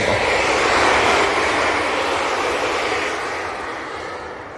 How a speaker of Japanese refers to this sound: 電車の通る音でございましたけど電車の通るところの、ね、近くを歩いてるので時々電車の音がこのマイクを通じて皆様の耳に届くと思います